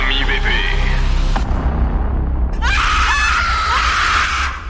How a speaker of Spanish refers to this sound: Las reglas del juego advierten que si no se lleva a cabo siguiendo los pasos correspondientes, una horrible mujer aparecerá en el espejo y gritará, ¡Devuélveme